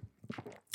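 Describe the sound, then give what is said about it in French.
A quiet swallowing gulp of blonde beer brewed with mountain flowers, a second sip, a brief wet mouth sound with a soft throaty click, heard alone without any talking. “Un Deuxième gorgée, 1000 des moins, dis donc.”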